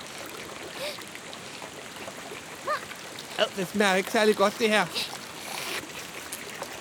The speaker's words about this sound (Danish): Og hak. Og der kommer vand ud af væggen øh, øh, så skal vi nok ikke hakke mere.